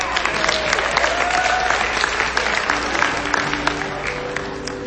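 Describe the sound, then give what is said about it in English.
Steady applause from a sizable audience, dense clapping filling the whole stretch at a fairly loud level, holding steady before easing slightly toward the end, with no one speaking over it. “So let's hear it for our”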